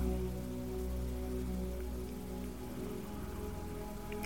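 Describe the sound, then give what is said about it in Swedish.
Steady rain patters onto a surface, a dense, continuous wash of droplets at even loudness with no voices, soft rather than pounding. “Och märker du att du tappar fokus på regnet och drömmer dig iväg, tänker på annat när du märker att det har hänt så går du tillbaka till ljudet av regnet och andetaget.”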